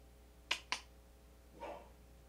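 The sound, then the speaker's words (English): A female dog in the house lets out two quick, sharp barks in close succession, then a softer, muffled woof about a second later, with no talking; she stays on her bed while barking. “My dog's barking.”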